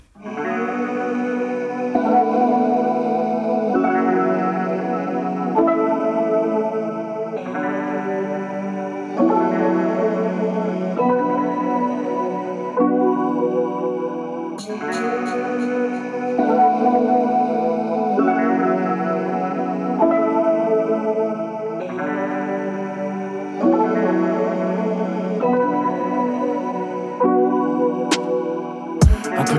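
A music track plays continuously at steady volume, a full, layered band sound with heavily effected, chorus-like guitar tones repeating in regular phrases, with no vocals or talking over it.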